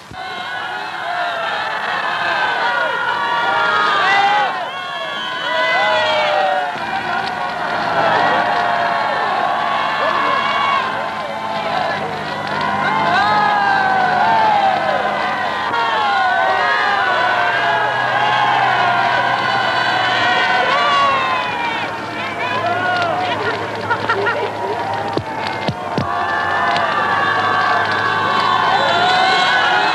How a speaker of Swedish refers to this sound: Alla lediga bilar hade mobiliserats och drogo fram genom gatorna fullastade med norska, danska och svenska ungdomar, vilka hurrade och skreko av hjärtans lust.